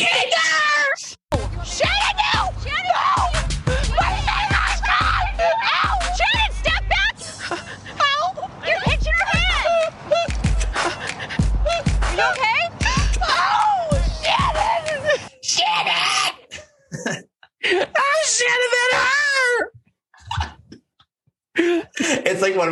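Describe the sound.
A woman screams loudly and repeatedly in a long, strained stretch, other voices shouting and talking around her, before it breaks into shorter bursts of yelling near the end.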